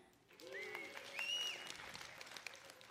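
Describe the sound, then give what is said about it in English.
A group that has just recited a Bible verse together gives themselves a hand, clapping politely for a few seconds, a soft, steady patter of hands at moderate volume, with a few faint voices rising briefly over it. “Nice, polite applause.”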